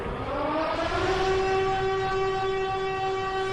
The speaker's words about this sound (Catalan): era la sirena instal·lada al campanar del Fadrí la que anunciava l'horror que anava a caure dels avions o dels barcos de guerra que vorejaven la costa. Quan sonava una volta, l'atac era per l'aire. Si ho feia cinc, era per mar.